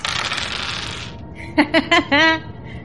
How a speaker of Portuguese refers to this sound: rola dois dados.